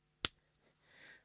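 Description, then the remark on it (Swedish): One sharp, crisp hand clap mimicking a film clapperboard snapping shut for scene 31, followed by quiet room tone and a soft, airy hiss near the end. “Jag flögs ner från Stockholm och så skulle jag klappa, scen 31.”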